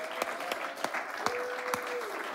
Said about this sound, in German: Hey, gebt euch mal gegenseitigen Applaus.